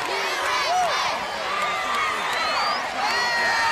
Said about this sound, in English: And listen to this crowd chant USA.